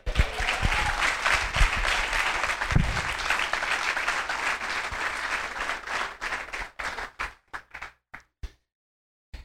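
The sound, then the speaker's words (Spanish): A crowd breaks into steady, dense applause for the Lord that holds for several seconds, then thins out into scattered individual claps before falling silent. “¿Cuántos aplauden al Señor?”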